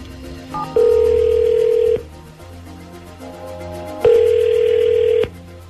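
An outgoing phone call ringing: two steady, loud ringback tones, each about a second long, separated by a pause of roughly two seconds, with a faint low hum beneath and no voices.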